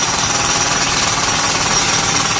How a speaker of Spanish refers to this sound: Espera, espera que me alejo, me, alejo, un poco. A ver, un poco el martillo pilón, ¿no? Sí, sí, pues me ha alejado un poco para hablar contigo y también para que la audiencia me escuche.